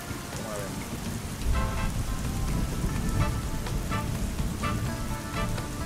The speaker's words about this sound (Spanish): pero vamos a tener que suspender esta, esta sesión del podcast, sí porque está lloviendo y me está cayendo el agua y me tengo que mover.